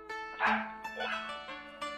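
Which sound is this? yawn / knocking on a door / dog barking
dog barking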